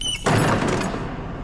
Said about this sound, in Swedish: Oh, och då äh, jag smäller igen dörren allt jag har.